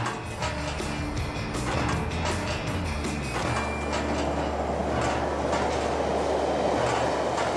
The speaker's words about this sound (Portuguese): a ponte podia cair a qualquer momento e como a passagem dos comboios abanava os ferros, caíam pelo menos 100 parafusos ao rio.